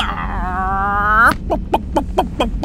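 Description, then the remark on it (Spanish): A man's voice imitates a chicken: a long, drawn-out squawk rising at the end, followed by about five short, choppy clucks in quick succession, fairly loud. “Dile que haga como gallina”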